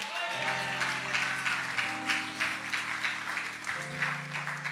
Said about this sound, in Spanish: Da un aplauso fuerte al que vive si puede.